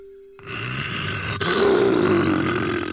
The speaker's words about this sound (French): Le lion poussa un rugissement terrible qui résonna dans toute la forêt.